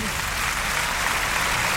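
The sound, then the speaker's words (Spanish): A bullring crowd's ovation for the bullfighter Pereira after his faena: sustained, dense applause with a steady roar of clapping that holds at an even, fairly loud level throughout, with no pauses or swells. “No, no, no, no, la ovación sigue, claro.”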